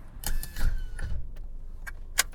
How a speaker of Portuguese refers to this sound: Carro desligado, é isso aí, minha gente.